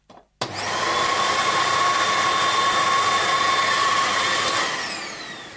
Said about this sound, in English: I'm going to put the vacuum cleaner nozzle into the bag and then hold the bag up tightly round with my hands so that it cl- seals it round the nozzle. I'll turn on the vacuum cleaner.